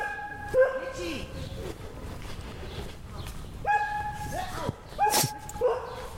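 A dog barks in three short, sharp bursts spaced a few seconds apart, loud, with a few high yips mixed in over a low background rumble.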